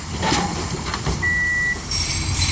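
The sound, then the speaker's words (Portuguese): A city bus on route 33 idles with a steady low rumble and broad road noise while someone boards it, and a single thin electronic beep sounds for about half a second midway through. “Vou, vou só aqui entrar no autocarro.”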